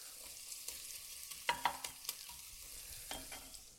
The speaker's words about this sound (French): Rien que ça, on pourrait se faire une petite tartine avec ces oignons euh, bien confits là, qui continueraient de confire dans la graisse de canard. On pourrait même manger un petit sandwich comme ça.